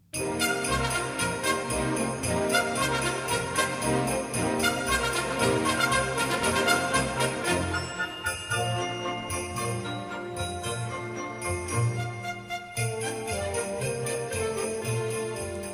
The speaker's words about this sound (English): Lots of sleigh bells there. So what have you got there? It sounds like you've got a glockenspiel as well in there. There is a glockenspiel. There's a, a xylophone, and towards the end there are horses' hooves, which we're playing on wood blocks,